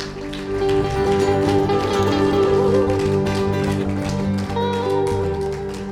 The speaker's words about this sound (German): Gebt ihm einen fetten Applaus.